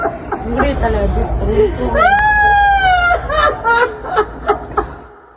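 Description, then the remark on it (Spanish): A woman lets out a long, anguished wail of grief that rises and holds for about a second, cutting loudly over a murmur of surrounding voices, followed by several short, sobbing cries. “Grita, mi amor, grita, grita.”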